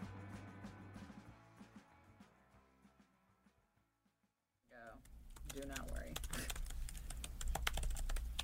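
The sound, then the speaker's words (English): Rapid, uneven clicking of fingers typing on a computer keyboard, fairly quiet, trailing off into a brief pause before louder voices and background noise come in. “Can you stop typing so I can retake yeah.”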